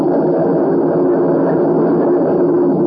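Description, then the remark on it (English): Steady rain falls outside a cave in a constant, even hiss with a dull, muffled rumble, fairly loud and unbroken throughout, with no voices or other distinct sounds. “Listen to it rain.”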